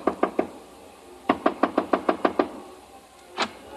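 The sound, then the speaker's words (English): Knocking on the door of hotel room 300: a quick set of three raps, a pause, then a longer run of seven even knocks, fairly loud, followed by a single softer thud. “I stopped in front of room 300 and knocked.”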